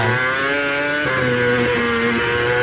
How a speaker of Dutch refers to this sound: Het is het enige exemplaar dat buiten Mercedes om wordt. Een V8-motor, ja, even het geluid horen voordat we de prijs weten